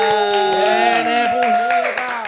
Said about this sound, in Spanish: Fuerte el aplauso